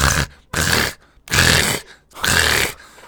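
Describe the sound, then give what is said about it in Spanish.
A person imitates a lamb hanging upside down and choking on its own blood, four harsh, rasping, gurgling bursts in a steady rhythm with short pauses between, loud. “Eso, se está ahogando en su Un poquito, y tú que escuchas al cordero haciendo...”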